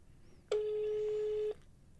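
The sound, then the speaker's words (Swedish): A single one-second burst of an outgoing phone call's Norwegian ringing tone, calling a number in Norway, a steady mid-pitched beep that starts and stops abruptly against a quiet, faintly noisy background. “Det går signaler till”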